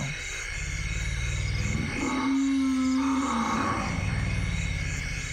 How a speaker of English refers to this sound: These are African forest elephants. And some of the sounds you can barely hear because their frequency is so low. They're literally, literally at the bottom end of human hearing range and even below that. We have little social behavior going on here